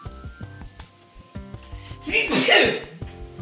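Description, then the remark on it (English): A single loud sneeze bursts out with a sharp explosive hiss, set against quieter background speech sounds before and after. “Sorry, just Bless you, bro.”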